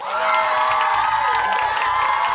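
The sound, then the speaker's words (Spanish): A big crowd cheers and whoops loudly with applause mixed in, played as a sound effect, a dense, steady roar of many voices lasting a couple of seconds without a break. “Y, ah, aplausos. Aplausos.”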